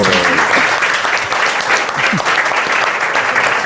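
Sustained applause from a crowd, a dense, steady wash of clapping that stays loud and even throughout, with a few faint voices or cheers mixed in underneath.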